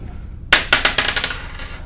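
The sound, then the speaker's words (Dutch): A die rolls and clatters across a hard surface: a sharp first knock, then a quick, uneven run of about half a dozen bright clicks that slowly fade as it settles. “prima, je mag de dobbelsteen nog een keer laten rollen.”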